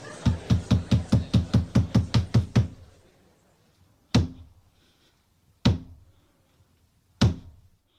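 A rapid run of about a dozen wooden knocks, then a pause and three slow, heavy blows spaced more than a second apart, the traditional three theatre knocks before the curtain, each ringing briefly in a quiet, resonant space.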